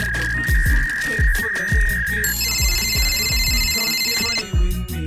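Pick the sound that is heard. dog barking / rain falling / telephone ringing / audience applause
telephone ringing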